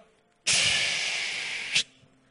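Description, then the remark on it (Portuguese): A voice imitates a branding iron, heated red-hot in a charcoal fire, sizzling on the hide of a held horse or cattle: one steady, loud, hissing 'tsss' lasting just over a second, starting abruptly and cutting off with a brief louder puff. “Quando aquilo fica em brasa, aí segura o cavalo, segura o gado e ó.”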